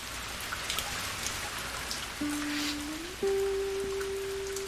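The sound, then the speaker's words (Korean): Steady rain patters and hisses throughout, with scattered nearby drops; about halfway through, a low, steady humming tone joins in and shifts slightly higher, continuing to the end. No one speaks. “아, 아버님이랑 만날 때도 이렇게 비가 오는 날이었고 허름한 포장마차였었는데”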